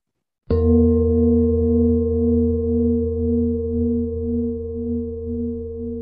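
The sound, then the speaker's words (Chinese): A singing bowl is struck once and rings on with a rich, sustained tone, its low hum pulsing in a slow, steady wobble as it fades gently over several seconds. No voices. “你知道这是来自于宇宙的声音吗？”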